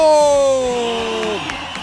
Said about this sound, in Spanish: también biólogo, un aplauso.